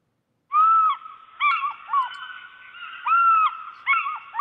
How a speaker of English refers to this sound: like it says it says eagles but that sounds like seagulls to me